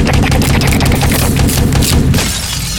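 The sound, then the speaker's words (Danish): A rapid burst of gunfire sound effect, loud, with sharp repeated shots crackling over a dense rumbling low end for a few seconds before tapering slightly. “Hvilket måske både rammer øh, den tilbageværende mand, der stod op på trappen, men må ikke også det lige sender et skud efter øh, Brandes.”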